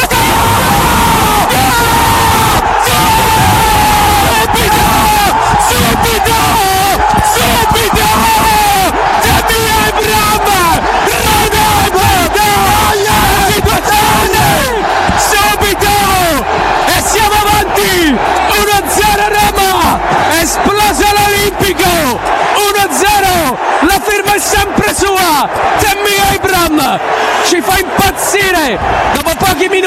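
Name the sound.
stadium crowd roaring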